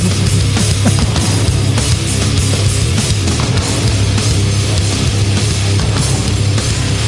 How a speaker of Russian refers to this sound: Вы слышите эту феерию музыкальную, да, что на фоне появляется в самоделишная, настоящая, живая музыка.